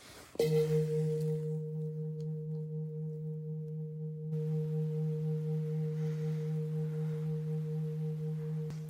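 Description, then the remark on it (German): A single strike of the second gong, then a deep, steady ringing tone that hums on for about eight seconds with barely any fade, with no voices. “Mit dem zweiten Gong schicke ich sie in meinen Alltag und in meine Zukunft.”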